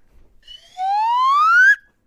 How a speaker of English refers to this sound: Yeah. There you go. and you get to hear more of that slide whistle.